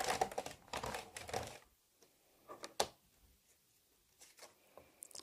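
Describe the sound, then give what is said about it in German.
Paper being embossed in an embossing folder: a dense burst of crunchy mechanical clicking for about a second and a half, then a few scattered isolated clicks, with no one talking. “Jetzt legen wir das Papier ein und prägen das Ganze.”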